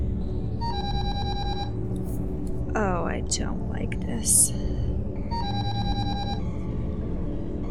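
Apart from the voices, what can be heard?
telephone ringing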